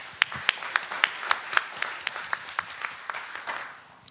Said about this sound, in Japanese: 大きな拍手をお願いいたします。